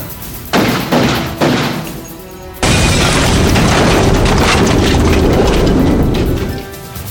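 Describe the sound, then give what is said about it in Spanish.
Two or three quick, sharp bangs give way to a loud, sustained explosion of a Samsung Galaxy 7 mobile phone, a heavy roaring blast that rumbles on for several seconds before fading, with no voices heard. “Aléjese de ese móvil. ¡Muerte el imperialista americano! ¡Apártense! ¡Va a explotar!”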